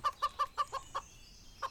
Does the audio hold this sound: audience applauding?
no